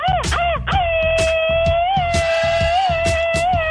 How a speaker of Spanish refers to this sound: Y que se aviente el grito ametralladora,